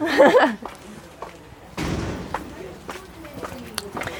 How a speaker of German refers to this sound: Wieder durch die Schleuse. Genau. Ist immer ein stetiges Türen auf, Türen zu.